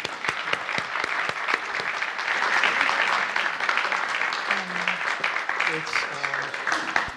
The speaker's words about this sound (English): I suppose it's a delight to have strangers applaud you for being a failure.